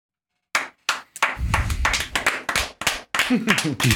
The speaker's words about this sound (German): Gibt's nur verhaltenen Applaus von Bruchhagen und Co.